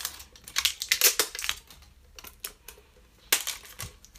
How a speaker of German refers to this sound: Ich mache die zweite Mini-Tin-Box auf.